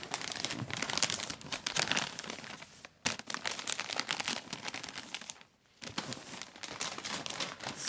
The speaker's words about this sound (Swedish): Så, var det det här ljudet du gillade nu av presentpappret eller?